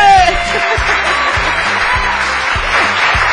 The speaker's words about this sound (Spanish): las palmas, mi gente.